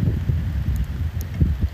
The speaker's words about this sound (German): eigentlich direkt neben dem Kapitelplatz und es schifft gerade, also es regnet.